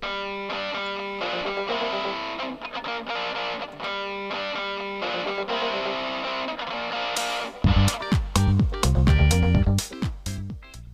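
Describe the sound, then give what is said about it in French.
A short musical jingle with bright, sustained synth tones that shift into a louder, punchy section with heavy bass hits and distorted accents toward the end, with no voices. “Jingle”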